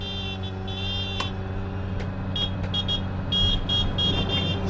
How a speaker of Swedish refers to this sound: sen så är det en bil som kör in framför snabbt och då börjar han tuta mot den och då sätter det här igång då.